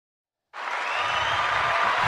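After a brief silence, a studio audience breaks into loud, sustained applause welcoming a 22-year-old guest from Laško, a ten-time national champion, a dense, steady wash of clapping that holds at full strength to the end with no voices standing out.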